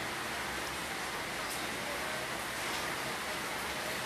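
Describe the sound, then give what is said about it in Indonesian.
Steady rain falls throughout, a dense, even hiss with no breaks or distinct drops standing out, filling the whole moment at a moderate, constant level. “Hujan guys.”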